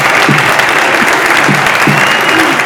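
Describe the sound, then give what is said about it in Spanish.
A stadium crowd at Castalia gives a loud, steady ovation as Club Deportivo Castellón's David Cubillas, number 9, leaves the pitch in a substitution. Dense clapping and cheering roar without pause for the whole stretch, with faint traces of a voice buried underneath. “Se va Cubi, ovación de Castalia, ¿eh?”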